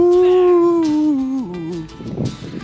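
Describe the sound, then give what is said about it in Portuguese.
A dog lets out a long, loud howl that slowly slides downward in pitch, then trails off into a brief rough, breathy yelp near the end. “Late coração, cachorro, late coração.”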